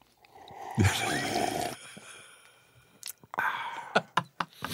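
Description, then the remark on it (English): A long, loud, wet slurp of coffee being sipped while on the phone, followed by a series of short smacking and clicking mouth sounds, with no talking. “we love the uh, sipping coffee and uh, loudly, you know, on the phone.”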